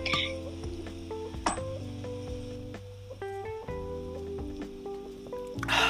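Glasses clink together in a toast during a live-streamed drinking chat, with Sapporo Black Label beer among the drinks: a couple of bright, ringing taps over a busy, tonal background with faint voices.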